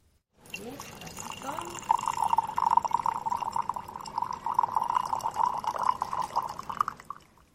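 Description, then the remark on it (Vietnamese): Tea pours in a steady stream into a small cup, a continuous trickle lasting several seconds, its pitch rising slightly at the start as the cup begins to fill. “Đặc biệt, bạn cũng không nên quên lời cô hướng dẫn, phải rót trà vào chén bằng cả tình cảm và tấm lòng của mình.”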